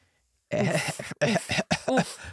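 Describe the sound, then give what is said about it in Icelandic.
A voice imitates a cough: three rough, voiced bursts in quick succession, fairly loud, with brief gaps between them and no other sound. “Hóst, hóst”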